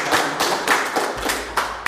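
Steady clapping, a run of about eight sharp, bright claps in an even rhythm, fairly loud, with no voices over them.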